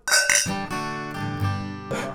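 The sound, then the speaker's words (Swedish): Glasses clink together in a closing toast, a couple of bright sharp taps followed by a long ringing tone that slowly fades, with another light clink near the end. “En avslutande skål. Skålen, ja. Skål.”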